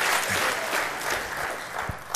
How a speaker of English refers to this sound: Let's give her a hand clap.